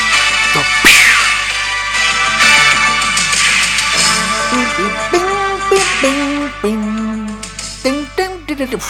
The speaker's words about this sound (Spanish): me encanta, me encanta. Me gusta tanto esta sintonía. Ya no se hacen sintonías así,